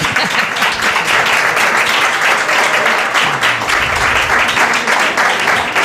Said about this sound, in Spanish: pero antes quiero recordar que estamos en el Museo del Videojuego de Málaga, que hay público aquí presente y se va a notar en esta ovación que nos están dedicando espontáneamente.